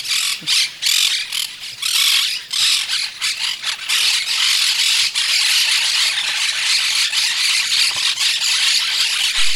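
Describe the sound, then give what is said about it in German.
A dense, continuous chorus of shrill parakeet squawks and screeches from a nest below a jabiru stork's nest, loud, with overlapping harsh calls filling the whole stretch and no talking. “Man muss schon wissen, so ein Jabiru-Storchküken, ich glaube, das hat so mit äh, circa zwei Wochen seinen ersten Hörsturz, weil es ist eine sehr, sehr laute Kindheit mit all den Sittichen unten im Nest.”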